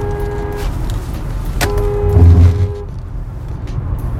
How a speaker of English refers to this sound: Car just tried to run me off the road, but nonetheless, older lady probably was sitting in her blind spot.